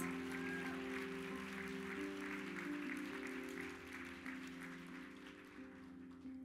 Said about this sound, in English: Can we just give a clap for our sisters?